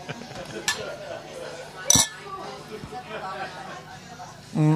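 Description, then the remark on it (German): Glasses clink together in a toast in Wolfsburg, one bright ringing chime standing out over background chatter and the clatter of dishes and cutlery. “Sehr schön, das klirrt.”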